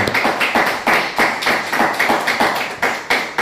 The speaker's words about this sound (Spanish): todos un fuerte aplauso a las naciones.